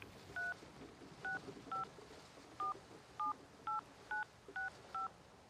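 telephone keypad dialing tones

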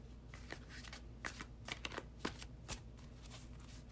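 shuffling tarot cards

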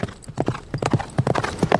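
horse hooves clip-clopping

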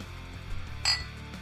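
glasses clinking

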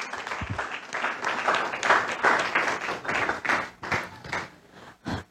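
audience applauding

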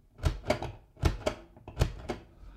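dice being rolled

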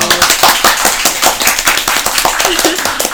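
clapping

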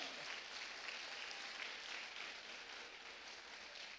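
audience clapping hands loudly

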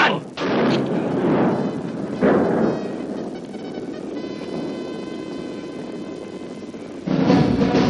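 rifle gunshots

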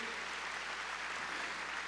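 audience clapping loudly

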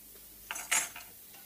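dishes clinking

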